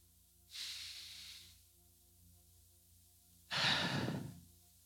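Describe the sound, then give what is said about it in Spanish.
A long, airy inhale followed after a pause by a louder, fuller exhale, with no talking, quiet hum in between. “Dios está contigo con tu respirar.”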